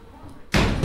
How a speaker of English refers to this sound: Not slam that goddamn door cover!